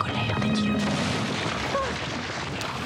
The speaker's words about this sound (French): Et c'était l'extrait d'un extraordinaire docu-fiction euh, euh, qui a été euh, diffusé il y a cinq ans déjà sur, sur France 2, un docu-fiction de la, de la BBC, avec cette pluie de Pierre Ponce qui, qui tombe.